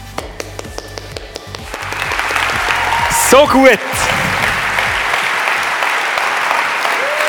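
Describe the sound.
Loud, sustained applause from a large standing audience welcoming a preacher at a church gathering swells into a dense roar of clapping and keeps going steadily, with a brief spoken voice and a few cheers near the start.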